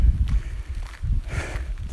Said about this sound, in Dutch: Nou, er komt nu even een hardloper aan.